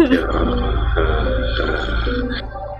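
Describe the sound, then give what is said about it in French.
A person imitates a cat's purr at night with a low, rattling throaty rumble held steadily for about three seconds, moderately loud, with a slight rise in pitch near the end. “Euh, moi, je fais, je fais, exprès de faire comme des petits bruits là, de comme un petit ronron de chat pour que vous ayez de quoi vous guider dans la nuit.”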